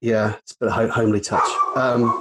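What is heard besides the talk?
dog barking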